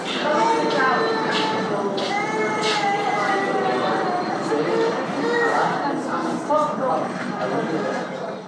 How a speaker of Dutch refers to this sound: maar we liepen daar langs de bedden en eh, er waren, je kunt ook horen op de audio, er waren waar verschillende baby's die aan het krijsen of aan het huilen waren.